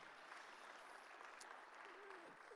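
A crowd claps steadily in dense, sustained applause, a continuous wash of many hands with a brief whoop or call rising faintly near the end.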